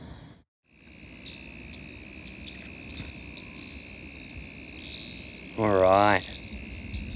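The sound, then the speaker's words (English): A steady night chorus of frogs near water trills and drones continuously in the background, heard while approaching a little wooden footbridge, with a brief spoken voice cutting in near the end. “I'm not sure how much you guys can hear of that, but there are some wonderful frog calls that we're already hearing.”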